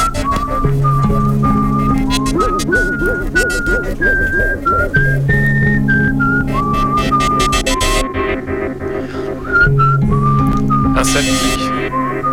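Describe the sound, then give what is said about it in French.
A person whistles a bright, lilting tune that keeps circling back on itself, carried over a steady musical backing of low bass notes and light percussion. “Les sifflets en boucle.”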